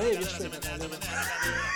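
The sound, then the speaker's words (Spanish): A person's voice imitates a donkey bray, a strained, wavering hee-haw that rises into a thin, high tone, over a steady, thumping musical beat. “¿Cómo es la del burro?”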